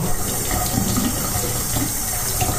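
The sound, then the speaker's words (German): A tap runs steadily with a broad, hissing rush of water, broken by soft splashing and irregular sloshes as hands are washed beneath the stream. No voices. “Jetzt wasche ich mir ein bisschen die Hände.”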